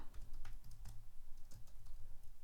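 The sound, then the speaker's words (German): Quick, irregular keyboard clicks from someone typing on a computer into a Google document, a steady run of soft tapping keystrokes with a low hum underneath and no voices. “Und ich mache das jetzt hier nochmal entsprechend in meinem kleinen Google-Dokument auch alles hübsch.”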